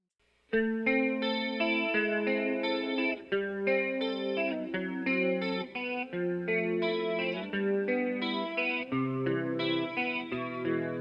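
A soft, tender love-song passage plays without vocals, with sustained, shimmering chords from an effects-laden instrument changing every second or so at an even, moderate loudness.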